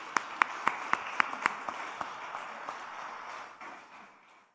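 An audience at a church worship service claps for Jesus, starting with several sharp, evenly spaced unison claps that give way to a looser, continuous patter of applause, which gradually fades out.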